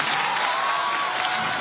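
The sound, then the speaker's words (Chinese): Steady, dense audience applause for a magician: many hands clapping at once in a loud, continuous wash of noise that holds evenly for under two seconds, with no voices standing out. “再次给掌声给我们的魔术师。”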